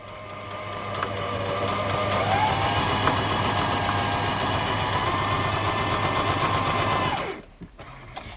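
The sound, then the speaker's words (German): A sewing machine stitches straps onto a large fabric bag, running steadily for about seven seconds with a continuous mechanical whir and fast stitching rhythm, fairly loud, then stops abruptly; no voices. “Jetzt habe ich die Träger fertig umgedreht und kann sie an den großen Beutel dran nähen.”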